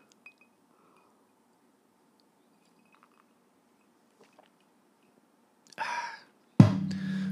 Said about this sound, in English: Ooh, he put the cup down too hard. Hear that quality tumbler, thick bass, heavy tumbler. Man likes his tumblers.